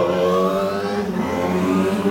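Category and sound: vehicle, motorcycle passing by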